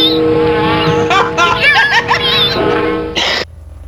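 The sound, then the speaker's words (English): A driver squeals car tires out front of the building in a drawn-out, wavering screech over a low engine rumble, fairly loud and lasting a few seconds before cutting off sharply. “Sorry, some jackass is squinting his tires out front.”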